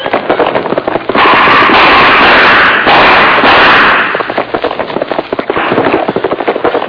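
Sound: pistol gunshots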